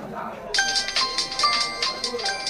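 signal or alarm, mobile phone ringtone

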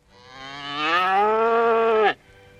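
animal, calf mooing

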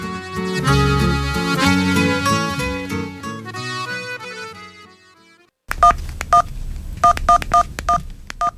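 signal or alarm, telephone keypad dialing tones

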